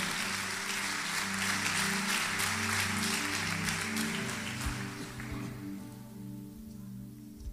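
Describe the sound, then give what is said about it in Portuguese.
An audience applauds the Lord in a dense, steady wash of clapping, loud at first then thinning out, with sustained low instrumental tones and chords playing underneath throughout. “Você pode aplaudir o Senhor, bendito seja o nome do Senhor.”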